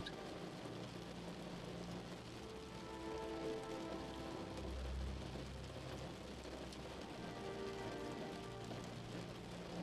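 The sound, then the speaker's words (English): Steady rain patters against a window in a soft, continuous hiss of countless drops, with a low rumble underneath and a brief swell midway. No voices are heard. “Guided meditation Deep sleep rain at your window”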